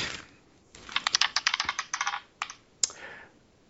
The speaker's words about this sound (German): Darf ich zweimal würfeln? Ja. Okay. Ich würfel, ich würfel jetzt äh, um die Seite.